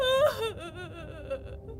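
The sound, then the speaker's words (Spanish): A woman's high, quavering wail rises sharply, then sinks into a long, trembling, sobbing moan that trails off slowly, eerie and mournful, with no words spoken; the legendary lament of Margarita's ghost heard in the streets of San Antonio, Cali, likened to that of La Llorona. “Desde entonces, en las calles de San Antonio se escucha su lamento, un lamento parecido al de la llorona, mientras desesperada recorre las calles.”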